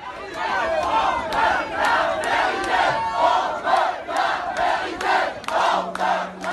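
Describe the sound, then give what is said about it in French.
A crowd of about 500 protesters chants together in a steady, rhythmic cadence, shouting the French slogan "on veut la vérité" (we want the truth) in unison. Many voices rise and fall in repeated loud bursts that carry on throughout. “on vient de l'entendre hein, sur euh, cette vidéo de, France Bleu, 500 hein, personnes qui crient on, veut euh, la vérité.”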